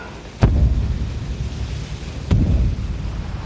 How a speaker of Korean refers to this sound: 그때였다. 처음 이 섬에 왔을 때 느낀 울림이 내가 딛고 있는 땅에서 다시 감지되었다. 쿵, 쿵.